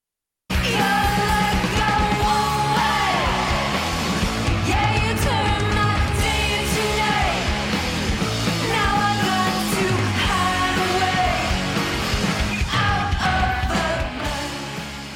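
A loud, dense rock song with distorted guitars and driving drums, a shouted lead vocal riding on top, starting abruptly and playing steadily at full volume throughout.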